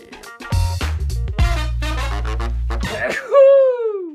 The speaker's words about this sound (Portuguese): É o espirro do palhaço.